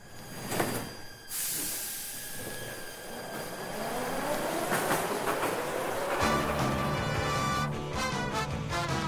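A metro train runs along the rails with a loud, steady rumble, a rising electric motor whine as it accelerates, and rhythmic wheel clatter growing heavier toward the end.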